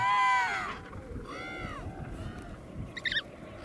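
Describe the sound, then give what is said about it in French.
An emperor penguin chick's high, whistling calls, a sustained trill, then a rising-and-falling arched call and brief chirps, over low rumbling wind; the chick calls so its parent recognizes it and feeds it. “Ouais, ça c'est un cri de, de, poussin qui espère euh, avoir son parent dans, le coin, qui reconnaisse euh, son cri pour se faire nourrir.”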